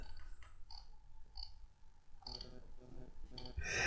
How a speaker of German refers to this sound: Du machst lustige Geräusche. Ja, aber ich habe eine andere Maus dran, die ist nicht mehr so laut wie die alte.